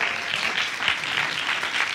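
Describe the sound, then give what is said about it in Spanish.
An audience applauds a new group coordinator steadily, a dense wash of many hands clapping at once at a fairly even loudness throughout, with no voices standing out. “Le damos un aplauso.”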